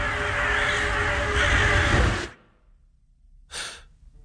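A loud, dense cacophony of ravens cawing harshly over one another, breaking off abruptly; after a short silence comes a single sharp, breathy gasp.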